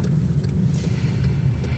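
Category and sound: vehicle, car background noise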